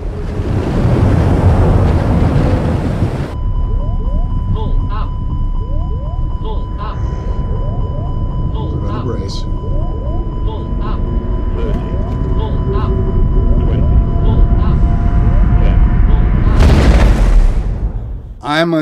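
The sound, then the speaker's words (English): An A320 jet airliner making a forced water landing on the Hudson: a loud rushing roar gives way to a sustained engine whine with creaks and chirping squeals, then another heavy surge of roaring water near the end. “how do you stage an A320 making a forced water landing on the Hudson so that you so you can get some good sound effects recordings.”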